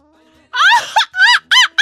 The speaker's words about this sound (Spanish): ¿Qué te va a salir? un grito zacatecano.